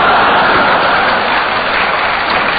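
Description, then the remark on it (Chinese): Dense, sustained audience applause, a loud continuous wash of clapping hands with no pauses and no voices over it, from a performance audience that claps before the performers have begun speaking. “我们还没说呢，您就鼓掌，是说的好吗？”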